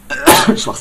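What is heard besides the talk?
cough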